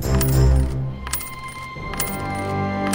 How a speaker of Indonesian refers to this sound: Ada seorang raksasa yang duduk di meja makan sambil menghitung koin emas.